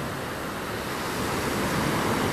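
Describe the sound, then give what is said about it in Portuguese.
Ocean waves breaking on the shore in a steady, rushing wash of surf that swells slightly louder midway, with some wind mixed in and no voices. “Senão o mar vai levar ela.”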